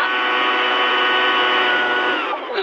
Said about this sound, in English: Drown her out with a 200 mile per hour cordless leaf blower. Got it. Here she comes.